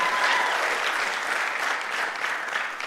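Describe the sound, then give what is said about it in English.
A crowd applauds steadily for the full stretch, a dense wash of many hands clapping at once, fairly loud, with no pauses or voices breaking through, giving a big welcome to all of the campuses. “I hope that you hear that arousing applause.”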